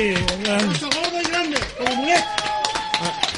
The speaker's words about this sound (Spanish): Un aplauso, por favor.